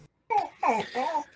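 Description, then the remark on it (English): A dog in the house vocalizes with three short, high, wavering whine-like calls in quick succession, moderately loud, with no talking over them. “Apologies for my dog. I swear he was going to be good.”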